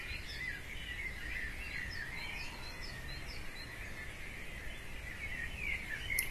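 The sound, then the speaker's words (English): Birds chirp and sing continuously outdoors, with several overlapping calls over a steady high insect-like buzz, no voices present. “the voice of our Mother Earth, the singing of the birds, the crickets and bugs, the breeze moving through the leaves.”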